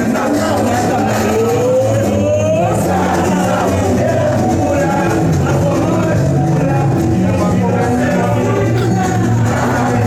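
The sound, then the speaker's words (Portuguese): A busy, festive crowd murmurs loudly around the Arena Corinthians stadium on a Corinthians versus São Paulo match day, with queues at the door of the stadium store, while samba enredo plays steadily beneath, forming a dense, continuous wash of voices and rhythm with no pauses. “Samba enredo rolando, filas e mais filas na porta da, da loja da Arena Corinthians”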